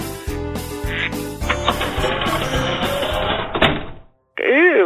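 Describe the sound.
Ducks quack loudly and repeatedly in a busy, rhythmic jumble. The sound cuts off abruptly and a voice begins speaking.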